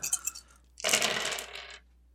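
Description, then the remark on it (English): A handful of six-sided dice clatters onto a hard surface during a tabletop game, a brief rattle followed by a louder burst of tumbling clicks that settles after about a second, clear with no voices. “I mean, you're level 11, so yeah, you need a lot of dice.”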